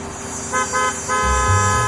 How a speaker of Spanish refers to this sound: Los cinco se vuelven para ver quién está pitando.